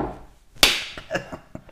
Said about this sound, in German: Meine Damen und Herren, das, was Sie jetzt hören, ist eine, eine laute Respektschelle.